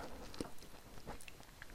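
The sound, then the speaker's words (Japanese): Soft, sticky chewing noises of someone eating mochi (sticky rice cake), with wet smacking and occasional brief clicks, continuing steadily for a moment without any talking. “餅は咀嚼するのに時間かかるねだからいつもより話が途切れがちですよね”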